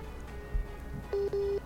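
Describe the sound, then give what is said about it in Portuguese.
A telephone busy tone: two short, steady beeps at the same mid pitch, clear and fairly loud over a faint background hum, as a phone connection with a police chief drops during a call. “Pronto, delegado, agora tivemos Pois não, tivemos uma pequena queda aqui na conexão, mas já está estabelecido.”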